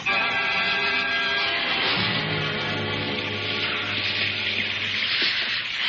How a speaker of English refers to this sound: You know, I'm getting soaked. Well, it's a welcome thing, rain, in this part of the world.